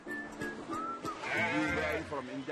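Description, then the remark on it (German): Sheep bleat, a few overlapping wavering cries that swell in the middle and trail off, with steady rustling farmyard background throughout. “Für uns sind unsere Schafe unsere Autos.”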